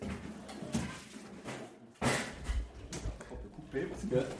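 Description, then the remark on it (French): Someone rummages through kitchen cupboards and drawers, searching for an object to use as a percussion instrument, with a series of knocks, clatters and a sharp bang midway, and faint voices murmuring. “Non, non, mais non, là on vous entend chercher dans votre cuisine, là.”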